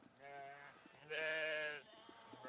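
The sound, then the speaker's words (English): Two sheep bleats in quick succession, the first shorter and softer, the second longer, louder and more strained, with a faint background hum. “Bah! Come on. Come on, sheep. Bah! Come on, sheep.”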